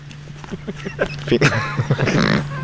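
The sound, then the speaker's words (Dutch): A person imitates a surprised eagle owl: a quick run of gruff, breathy vocal hoots that builds into a louder, rising, questioning call, with a steady low hum underneath. “Ik kan trouwens een goede imitatie doen van een verbaasde oehoe.”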